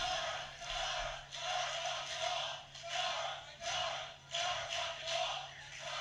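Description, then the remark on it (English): A large wrestling arena crowd chants a wrestler's name in unison, its loud, roaring voices swelling and dipping in a steady repeated rhythm about once a second, with a low hum underneath. “what are they Car- chanting? Noir? Cara, Cara, Cara, fucking Noir.”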